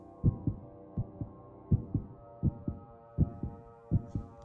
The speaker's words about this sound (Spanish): En aquel momento llegó a mis oídos un resonar apagado y presuroso, como el que podría ser un reloj envuelto en algodón. Aquel sonido también me era familiar. Era el latir del corazón del viejo.